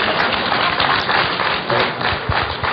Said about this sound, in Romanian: aplaudați în Sfânta Biserică.